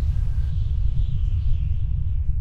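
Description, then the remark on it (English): A deep, continuous rumbling of the ground shaking during an earthquake, heavy and steady throughout, with a faint hiss riding above it and no voices. “he replied as the ground rumbled.”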